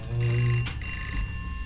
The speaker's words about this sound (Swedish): Telefonen ringer och skramlar.